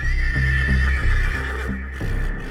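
A horse whinnies loudly, its voice rising and wavering for a couple of seconds, while hooves clop steadily underneath. No one speaks.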